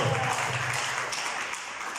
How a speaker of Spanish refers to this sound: Un corazón de piedra, déselo a Cristo si le va a dar ese aplauso.